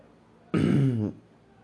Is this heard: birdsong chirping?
no